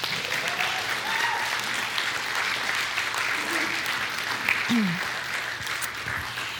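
Steady, dense applause from an audience cheering for the writers of a play, filling the whole stretch, with a few brief cheers and whoops rising above the clapping.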